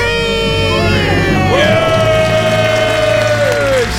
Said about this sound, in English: Let's hear your debt free scream. Three, two, one. We're, We're debt free!